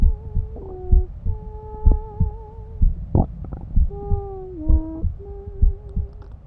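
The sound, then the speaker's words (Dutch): Muffled, steady thumps of a mother's heartbeat pulse beneath a low whooshing rush of her blood vessels, as heard by a baby inside the womb before birth, while faint wavering hum-like tones drift above, all sounding underwater. “Je hoort het ruisen van je moeders bloedvaten, het kloppen van haar hart je hoort het als ze een scheetje laat en zelfs als ze aan het praten of zingen is.”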